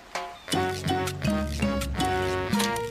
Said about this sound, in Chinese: 我们必须查查哪一座山有夹夹蚌壳呢？夹夹蚌壳的声音是这样的。